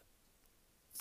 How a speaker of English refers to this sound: I apologise if you hear any clicking in the background, that is indeed my computer.